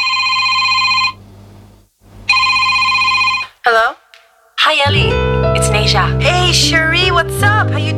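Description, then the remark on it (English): A telephone rings twice, loud, with a short pause between the rings. Then comes a brief chirp, and people start talking over a busy background. “And in fact, I think there's one on the phone now.”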